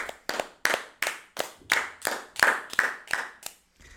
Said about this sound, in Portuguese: Uma salva de palmas outra vez para vocês.